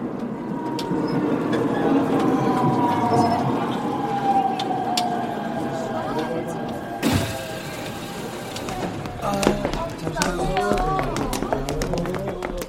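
A subway train running between stations toward Chungmuro station rumbles steadily along with a whining motor tone that slowly drops in pitch, a brief hissing burst midway, then murmuring voices emerge over the continuing rumble.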